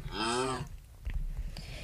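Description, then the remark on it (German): A single loud, drawn-out cow moo in a video game lasts about half a second, then gives way to quiet clicks and light thumps. No one speaks. “Aber du hast ja noch Kuh und das Schaf.”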